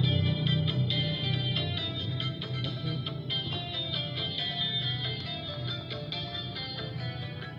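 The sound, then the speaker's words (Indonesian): Dangdut music plays steadily through a small phone speaker, thin and tinny with a slightly echoey, distorted tone, filling the whole stretch without any talking over it. “agak teman musik dangdut ya Iya, ya jadi nemenin aja itu suara dari mana bang kenapa suara dari situ handphone oh handphone”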